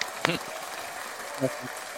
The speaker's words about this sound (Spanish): Así que nada, de nuevo, gracias a los tres y todo el chat, por favor, un aplauso grande para, para estas personas que, si no, gracias a ellos, todo esto habría sido imposible. Gracias, chicos. Bravo, bravo.